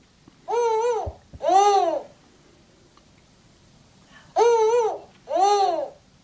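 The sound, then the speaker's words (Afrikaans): Two pairs of hooting owl calls from a spotted eagle-owl, each pair a rising-then-falling double hoot, separated by a few seconds of quiet, clear. “Hier is die gevlekte ooruil.”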